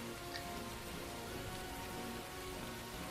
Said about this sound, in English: Is it still pouring Oh yeah.